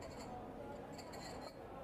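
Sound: glasses clinking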